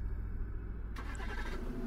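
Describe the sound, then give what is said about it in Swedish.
A moped car's engine starts up partway through, parked outside a house at one minute to eight in the evening, shifting from a low idle rumble to a brighter, rougher running sound that continues steadily as it sets off south. No one speaks. “Han startar bilen och åker söderut mot de tre personerna på elljusspåret.”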